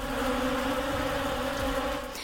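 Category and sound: insect, swarm of bees buzzing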